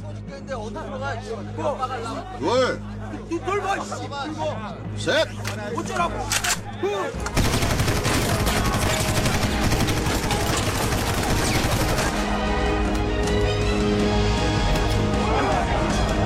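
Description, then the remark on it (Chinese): A film scene: prisoners brawl, shouting and scuffling, on a boat guarded by armed South Korean special forces soldiers; as the boat nears shore, Sergeant Cho opens fire to stop the fight, a sudden burst of loud gunfire continuing as a dense, crackling barrage until the end. “曹中士看到船即将靠岸，开枪制止了斗殴，同时下令把船停下，转头命令所有犯人三个数之内全部跳船。”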